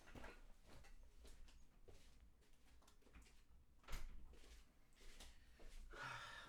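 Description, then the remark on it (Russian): A door is pushed shut because of constant meowing, with a few soft bumps and a sharper knock near the middle, followed by light rustling and shuffling. “Много мяукает, поэтому пришлось закрыть дверь.”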